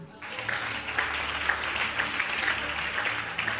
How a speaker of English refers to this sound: say amen are you clapping